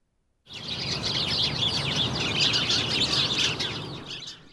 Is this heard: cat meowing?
no